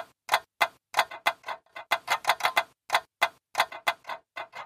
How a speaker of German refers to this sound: Dieser Song … beginnt mit klickenden Geräuschen von einfachen Scharnieren und Riegeln